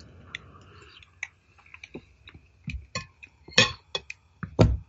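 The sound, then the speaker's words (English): Someone chews the crisp pastry of a pie baked in a little tin tray, with a filling like chicken and mushroom soup: a run of irregular crunchy bites and clicks that build to a few louder crackling crunches near the end, with no talking. “The pastry is reasonably crisp.”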